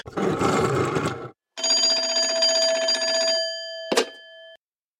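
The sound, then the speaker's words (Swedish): A telephone rings loudly for a caller on the radio show Fotbollsmorgon, in two long bursts of a rapid mechanical bell, followed by a short sharp ding that leaves a ringing tone fading out. No one speaks. “Det ringde i örat här. Då ska vi se om vi har med oss eh, Frans på tråden.”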